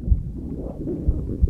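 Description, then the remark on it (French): A low, murky gurgling rumble of a human digestive system churns steadily, with a few soft deep thumps breaking through, heard in the silence of an anechoic chamber. Muffled, no voices. “Les battements du cœur, le sang qui coule dans nos veines, le système digestif,”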